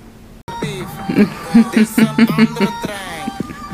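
A short snippet of a song kicks in abruptly, a sung melody over instrumental backing, bouncing through quick stepped notes at a fairly loud, steady level for a few seconds.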